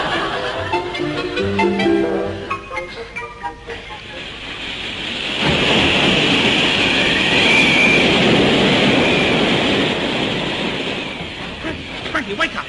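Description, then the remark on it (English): A man talks briefly, then a loud, steady roar of gale-force wind surges in and keeps blowing, a broad rushing howl with faint whistling that slowly eases toward the end. “What is a gale blowing? We're drifting.”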